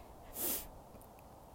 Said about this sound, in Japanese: そしてちょっと風が 今思わず鼻をすすってしまいましたが風が吹いて寒くなってくるとまだちょっと寒いと感じると鼻水って出ますよね